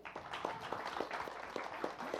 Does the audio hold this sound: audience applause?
yes